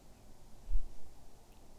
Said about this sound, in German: Lausche noch einmal bewusst dem Rauschen des Meeres